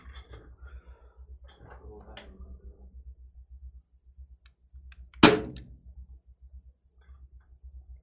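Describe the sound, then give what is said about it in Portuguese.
A single sharp airsoft pistol shot, fired with one pellet at a curtain, cracks out loudly and decays quickly, preceded by faint indistinct voices and low background hum. “Aí se você quiser, você, agora você pode tirar na cortina.”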